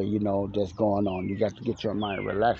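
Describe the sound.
Birds sing faintly outside, with a couple of thin descending whistles, while a man talks steadily over them.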